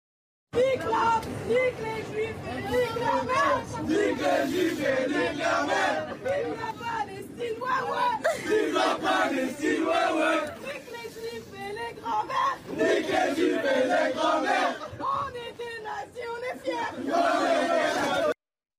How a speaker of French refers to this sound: Euh, on va d'abord réécouter, euh, pardon de vous infliger ça, mais c'est important de réécouter ces chants et de voir les réactions alentour de cette vidéo, puis on va écouter les explications de la jeune femme. Tout d'abord la vidéo.